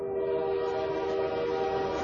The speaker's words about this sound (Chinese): 忽然，孩子们发现。一列火车迎面开了过来